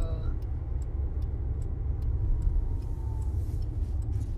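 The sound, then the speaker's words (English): Steady low rumble of a car interior while driving, with engine and road noise droning throughout and a regular, evenly spaced ticking, like a turn indicator, running on top. “This was the last car ride I had”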